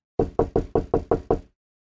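impact, knocking on a door

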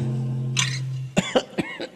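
human body sound, cough

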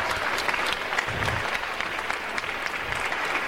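crowd, people applauding

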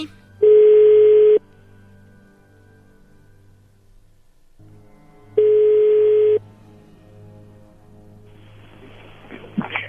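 signal or alarm, telephone dial tone

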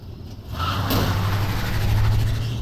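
vehicle, car engine revving

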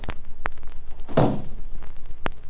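household object, door being closed

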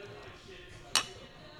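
household object, beer glasses clinking

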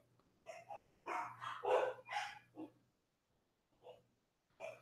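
animal, dogs barking

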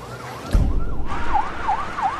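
vehicle, police car siren arriving

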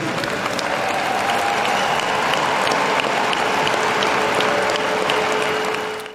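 crowd, crowd cheering and applauding

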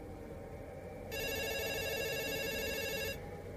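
signal or alarm, telephone ringing

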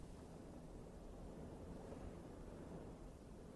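nature, rain falling outside

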